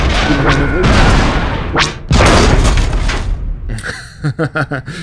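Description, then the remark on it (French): Loud, dense blasts and booming explosions from a spaceship's cannons roll almost continuously, with a sharp swooping burst midway, then a rapid string of five or six punchy cannon-like shots near the end. “Grouille-toi, R4, ça va pas durer. Super, mets tout dans les canons.”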